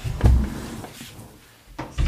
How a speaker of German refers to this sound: Oh, ich muss hier einmal die Tür schließen. Warte mal kurz.